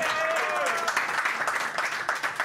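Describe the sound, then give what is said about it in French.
An audience applauds the show's guest, a former NFL player, steadily: a dense, crackling wash of many hands clapping at once, with a brief cheer or whistle rising over it near the start. “Eh ben, vous pouvez l'applaudir encore une fois.”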